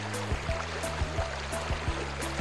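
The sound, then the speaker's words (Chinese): Steady rushing water from a waterfall fills the background with a broad hiss, while low tonal hums and periodic soft swells recur throughout, no voices heard. “在瀑布的旁边，河童听到了小鸡的哭声。”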